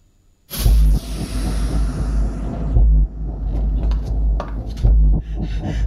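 A sudden, loud explosion bursts in after a brief silence, followed by a deep, sustained rumble and scattered clattering and crunching debris that continues for several seconds.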